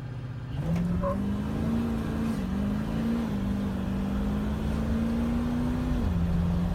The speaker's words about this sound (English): Oh, we got a nighttime launch. Jesus. A 5R110 just giving her.